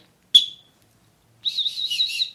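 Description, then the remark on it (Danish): A sharp click, then after a brief pause an emergency whistle is blown in a short, warbling, trilling blast lasting about a second. It is moderately loud, with no talking. “skal jeg nok lade være med at fløjte alt for højt i den, så min øh, nabo ikke kommer, kommer rendende.”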